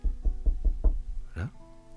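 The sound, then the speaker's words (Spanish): Five quick, evenly spaced, solid knocks on the wooden door of a small house in the rain, followed by a short vocal sound and faint background hum. “Toca la puerta de esa casa.”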